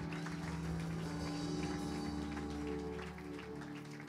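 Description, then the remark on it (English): Dense, steady audience applause with rapid overlapping hand claps, a standing ovation and hand-clap offering unto the Lord to welcome a speaker, sustained at an even level for several seconds over a low droning musical tone. “Now, with a hand clap offering unto the Lord and standing ovation on your feet, will we welcome our Papa”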